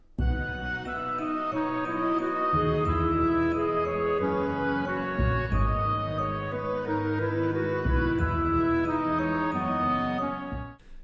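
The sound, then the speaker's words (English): A full orchestral arrangement plays steadily, with a clarinet counter melody, harp and marimba weaving over pizzicato double basses that change notes every few seconds, loud, with no voices. “and you can hear that uh, pizzicato in the double basses to me sounds kind of timpani like even though but you know not quite timpani like because it's not a timpani it's double bass um, but you can definitely hear that accenting this, the, the beats”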